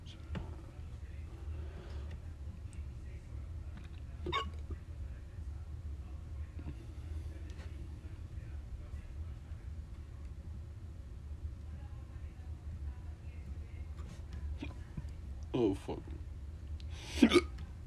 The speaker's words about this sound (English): I got fucking hiccups.